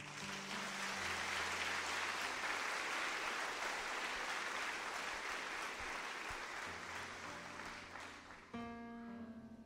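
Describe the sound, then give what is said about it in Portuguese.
An audience applauds Saint Terezinha do Menino Jesus, loudly and steadily for nearly ten seconds, a dense wash of clapping with faint tonal hums beneath, easing slightly near the end as a sustained musical tone comes in. “Aplauda Terezinha.”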